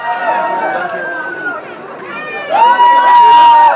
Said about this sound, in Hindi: जैसे ही एयरपोर्ट के गेट के अंदर एंट्री की हवाओं में चारों तरफ शाहरुख के नाम का शोर गूंजने लगा